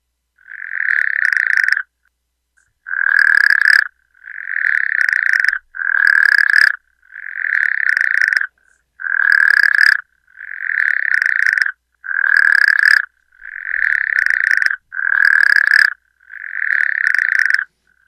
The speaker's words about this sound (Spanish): primero observaron el comportamiento y si, le hicieron grabaciones de los cantos de las ranas. Déjame ver si yo pude, tengo aquí sonidos de esos cantos.